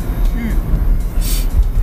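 Muffled, low rumble of a car outside, steady throughout with a brief airy hiss swelling midway, heard faintly through a wall or window.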